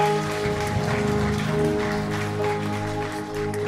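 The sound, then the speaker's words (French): A church audience applauds to greet the teams at the start of a morning service streamed live on YouTube: a dense wash of many hands clapping at once that holds at an even, fairly loud level throughout, with a faint steady hum underneath. “Est-ce que vous pouvez nous faire signe, applaudir et saluer nos équipes, ceux qui sont avec nous sur Internet On est heureux d'être ensemble ce matin.”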